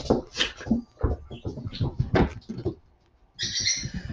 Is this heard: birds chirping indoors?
yes